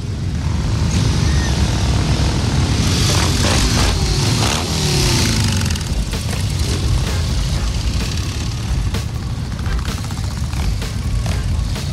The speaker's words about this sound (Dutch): En met hem 377 andere motorrijders het duimpje gaat omhoog. En ze gaan vertrekken voor een fantastische rit door Amsterdam. De Distinguished Gentleman's Ride 2022 Amsterdam gaat van start.